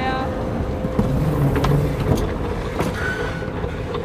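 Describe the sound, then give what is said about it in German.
A moving escalator going down to train platform 2 hums with a steady mechanical rumble, broken by a few soft clacks and knocks as the steps roll along. “Wir stehen auf der Rolltreppe, die runter zum Gleis 2 führt.”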